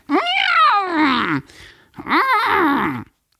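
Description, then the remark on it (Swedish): A cat, Kattis, yowls furiously and loudly twice: a long, wavering cry, a brief pause, then a second, slightly shorter drawn-out howl. “Det var som att katten Kattis blev rosenrasande igen.”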